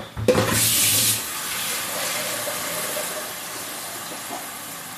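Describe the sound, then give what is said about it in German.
About 2 litres of water gush loudly into a large, wide pot for about a second, then settle into a steady, softer rushing hiss as it keeps flowing. No one speaks. “So, na gut, das haben wir großen weißen, äh, weißen, großen weiten Topf und ungefähr 2 Liter Wasser.”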